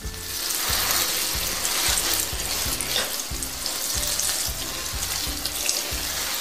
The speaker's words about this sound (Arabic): بدأ بملء الإبريق مستخدما خرطوم الماء